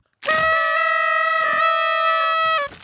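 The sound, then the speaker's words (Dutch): A party blower gives one loud, buzzy, steady-pitched honk that holds for about two and a half seconds, then cuts off abruptly. It plays alone, with no talking. “Dat is een roltong.”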